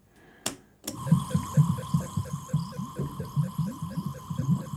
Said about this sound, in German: Das Zischen kommt von der Pumpe, die die Nährlösung in die Gehirnzellen drückt.